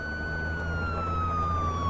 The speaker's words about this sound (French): Je me retourne et j'aperçois les gyrophares bleus qui se rapprochent. Je me lève lentement du banc, tournant mon visage vers les sirènes, et alors que je m'avance vers la voiture de police qui s'est arrêtée devant moi